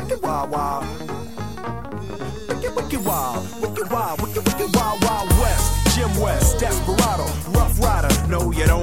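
A pop song from a film soundtrack plays loudly and steadily, with sung or rapped vocals over a punchy beat; a heavy bass line kicks in about halfway through.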